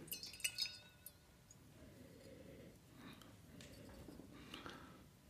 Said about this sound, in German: Wenn man dann das Glas nimmt und mal ein bisschen schwenkt,